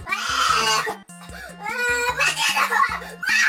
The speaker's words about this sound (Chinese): 但是最近啊，在江苏苏州有一个萌宝看到他妈妈要杀虾。妈妈，妈妈不能杀他，太残忍了！连忙阻止啊，但是弱小无助又可怜的他无力对抗妈妈要杀虾的决心，最后虾还是死了，孩子哭得撕心裂肺。